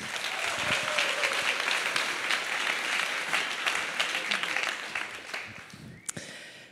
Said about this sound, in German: Begrüßt sie mal mit einem Applaus auf dieser Bühne.